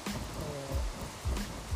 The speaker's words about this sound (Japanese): まだちょっとポツポツ来てるけどまだ今んとこ持ってる